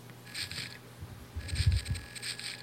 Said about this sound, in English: Yeah, and there's a sound effect that plays. Seriously, it sounds like you're using a, a one of those robot crane machines. It's like, let me see if you can hear this when I move my guy around.